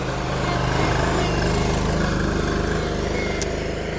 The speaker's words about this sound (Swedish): Oj, nu kommer en eh, minitraktor här.